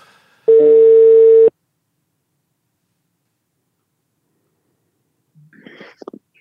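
A single loud, steady ringback tone plays for about a second as a phone call is placed, followed by silence before a voice faintly begins speaking.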